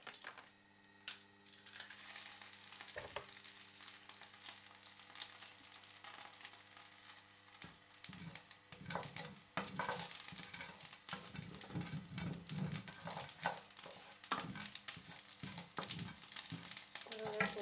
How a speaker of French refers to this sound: Et c'est une recette que je trouve euh, assez intéressante en termes de son parce que euh, il y a vraiment différents sons. Euh, tu as les graines de moutarde qui est dans l'huile qui chauffe, qui fait un bruit assez particulier.